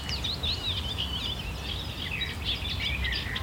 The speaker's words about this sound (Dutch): Heel mooi, met... Een beetje nachtegaalachtige klanken. En daaronder hoor je een achtergrondskoortje van kleine karakieten.